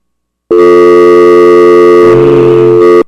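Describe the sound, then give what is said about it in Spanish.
A loud, steady electronic telephone ring tone sounds alone for about two and a half seconds, its buzzing pitch shifting slightly near the end before cutting off, as a listener calls in to a radio sports program. “Qué bonito se oye. Buenas. eso significa que el teléfono está sano y no tiene coronavirus.”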